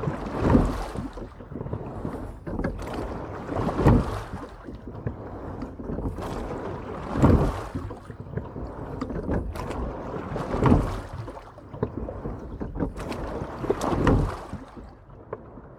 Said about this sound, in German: Das waren Rudergeräusche.